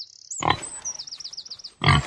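A pig grunts twice in a children's story as Ellie the duck rides her bicycle past a pig: two short, loud, rough snorts about a second and a half apart, with a thin high warbling tone and faint background noise in between. No one speaks.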